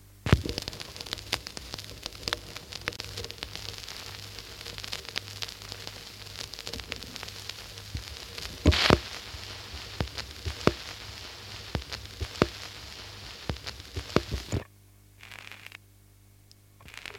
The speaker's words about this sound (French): bien sûr, les fameux vinyles qui grattent, qui grattent et qui sautent un peu.